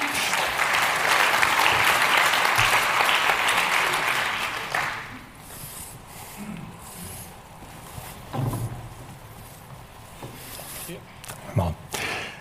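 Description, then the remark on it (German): An audience claps steadily and fairly loudly for about five seconds to welcome a man onto the stage, then the applause drops away, leaving quiet with faint voices and a few scattered thumps. “komm doch auf die Bühne, auch ein Applaus für ihn.”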